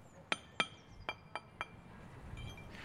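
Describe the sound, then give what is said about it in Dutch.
Five sharp, ringing taps of a street paver setting paving stones on the Voorhout street in The Hague, Netherlands, struck in an uneven rhythm, then fading into a quiet outdoor hush. “Het getik van de stratenmaker is het enige dat je hoort.”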